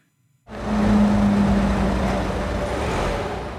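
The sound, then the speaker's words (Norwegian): After a moment of silence, a car's engine rumble starts up and holds steady, fairly loud, with a low droning hum as cars roll slowly one after another into a drive-through coronavirus test station in Stavanger in summer. No one speaks. “Enn etter enn kommer bilene rullende inn på teststasjonen i Stavanger.”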